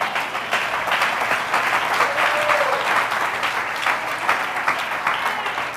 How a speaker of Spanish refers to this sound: ¿Cuánto da un aplauso al Señor?